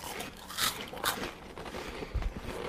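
Crunching of sour cream chips made from corn, with a few sharp, crackly bites spaced irregularly amid steady chewing and no talking.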